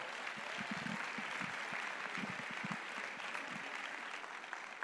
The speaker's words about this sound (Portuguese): Amém. Glória a Deus. Aplauda ao Senhor.